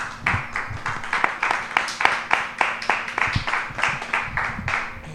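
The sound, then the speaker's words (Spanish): An audience applauds steadily, a dense patter of many hands clapping at a fairly even loudness throughout, with no voices standing out. “Un aplauso muy grande para vosotros.”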